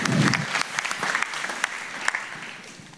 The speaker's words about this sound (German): Ihr bekommt auch einen Applaus.